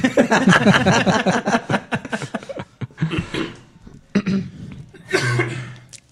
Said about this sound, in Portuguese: Todo mundo já tossiu, já?